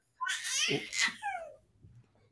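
A baby girl, a newborn, babbles in a short, bright burst of high, wavering coos and squeals lasting about a second and a half, then trails off into quiet.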